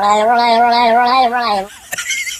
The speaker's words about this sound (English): That's a dog. that is a dog.